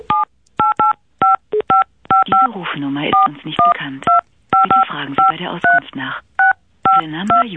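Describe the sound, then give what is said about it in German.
Telephone keypad beeps tapped out on a phone system as a rhythmic tune, short dual-tone presses in quick clusters, loud, with a voice singing in the gaps between them. “Ich zum Beispiel kann dir mal ganz kurz beweisen, dass ich hier auf meiner Telefonanlage geschmeidiger spielen kann.”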